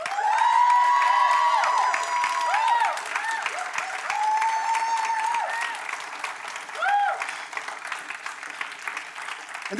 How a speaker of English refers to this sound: And as they come forward, I want you guys to give them the biggest hand clap of praise that you possibly can.